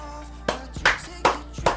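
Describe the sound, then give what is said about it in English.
A few sharp hand claps at a slow, steady pace, roughly four in a row, moderately loud, with no voices over them, welcoming a returning co-host on air. “Oh yes, yes, yes, yes shower him with applause.”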